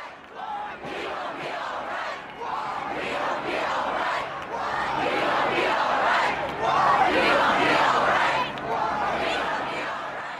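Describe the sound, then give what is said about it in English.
A large protest crowd in Chicago after the election of Donald Trump chants in unison, voices rising and falling in a steady rhythmic pulse, loud and continuous across the whole stretch with a broad, echoing outdoor roar. “And this is Chicago after the election of Donald Trump.”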